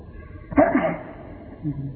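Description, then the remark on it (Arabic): A single sharp sneeze bursts out during a religious lecture, loud and fading quickly, followed a moment later by a faint murmur of voice. “يرحمك الله”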